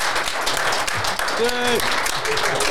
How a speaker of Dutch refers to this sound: Mensen, eh, heren bedankt. Ja, heren bedankt. Ik ga, eh, Vanuit de zaal zou ik zeggen, eh, geef ze een ontzettend applaus.